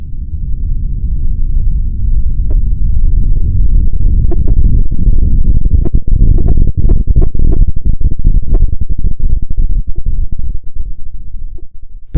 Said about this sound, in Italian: Dopo un altro interminabile minuto la forza della scossa aumentò ulteriormente, con un rombo terrificante.